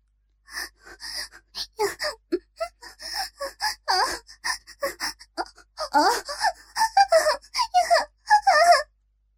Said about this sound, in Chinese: 强忍住用微弱的声音呻吟。越发高亢，但小龙女已觉十分羞耻。